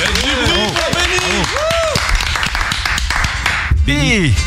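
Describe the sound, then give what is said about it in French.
A small group claps and applauds steadily throughout for the man who records the acoustic live sessions, with voices whooping and cheering loudly over the clapping. “Pour la captation des lives acoustiques, comme d'habitude, celui qui était déjà là il y a deux ans et demi lors de votre première venue, celui qu'on applaudit ici”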